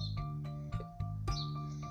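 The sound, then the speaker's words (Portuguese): A sparrow perched on top of a pole chirps in short, repeated bursts over a steady low background hum, with a few sharp clicks mixed in; the chirps come at an irregular pace. “Pardal cantando em cima do poste.”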